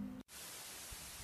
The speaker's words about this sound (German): Das ist so ein bisschen Klaviermusik. Ähm, das ist ein bisschen Rauschen drin. Das hört sich so an.